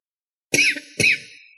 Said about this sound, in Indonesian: Kok, kok aku batuk?